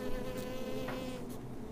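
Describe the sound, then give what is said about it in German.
A honeybee buzzes steadily in flight in a city, a continuous droning hum with faint pitch shifts as it moves, with no voices present. “eine Biene entlangfliegen eine Honigbiene.”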